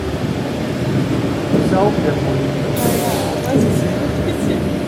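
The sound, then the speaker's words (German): A sewage plant grit washer rumbles steadily, a continuous mechanical roar with churning water and a brief hissing burst of air midway, as water and air wash the grit before it is pressed and carried out by a screw conveyor, while a faint voice briefly sounds in the background. “damit mit Wasser und Luft wird quasi das Sandfanggut nochmal äh, gewaschen und das wird auch dann anschließend gepresst über diese Schnecke ausgetragen.”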